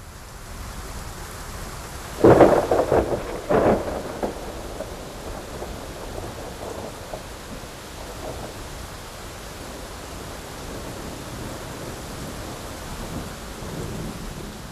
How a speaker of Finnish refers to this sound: Thunder. Se on ystävät sillä tavalla, että Luonto Suomen myrskyilta jatkuu kello 20 saakka tämän tehosteen vauhdittamana, ryydittämänä.